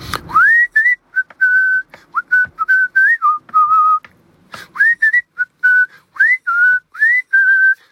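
A person whistles a simple tune alone, with clear, close-up notes that rise and hold in short phrases, pausing briefly midway before continuing the melody.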